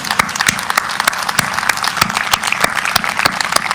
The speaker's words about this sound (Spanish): Yo no sé tú, pero yo quiero darle un aplauso a él por lo que él me habló antes de la pandemia.